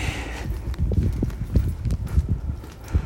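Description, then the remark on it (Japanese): Raindrops patter overhead on an open umbrella held up by a person in the rain, a steady, irregular drumming of soft taps with no one speaking. “なんかね、皆さん傘さします僕は今はね皆さんに雨音聞かせるためにさしてますけどこのくらいの雨だったらささないですね傘”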